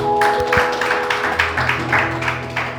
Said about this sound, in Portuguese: Vamos aplaudir esse Deus maravilhoso.